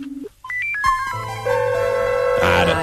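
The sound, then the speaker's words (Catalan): A telephone-style ringing tone opens a song: short stepped electronic beeps rise and fall, then give way to sustained synth notes and fuller music. Clear, with no voices. “quan comença a cantar, de fet, sembla que estigui trucant. que no t'agafa línia”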